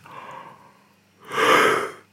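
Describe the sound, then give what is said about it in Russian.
A breathy yawn: a softer drawn-in breath followed by a louder, longer open-mouthed exhale that swells and fades over about a second, with no talking. “Ты так рассказывал, что сейчас я буду зевать, извините.”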